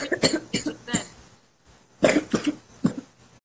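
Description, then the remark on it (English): A series of harsh coughs in two bursts, several sharp hacks in quick succession, a brief pause, then another cluster of coughs, loud with no talking. “You're coughing.”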